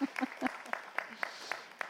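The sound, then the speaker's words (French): Audience applause: a thin, steady run of claps with sharp, evenly spaced hits, plus a brief murmur of voices at the start. “pouvez applaudir, ils vont se boucher les oreilles.”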